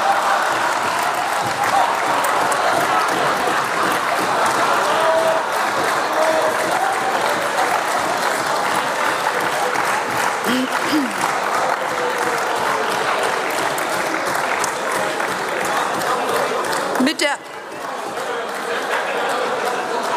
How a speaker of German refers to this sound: Applaus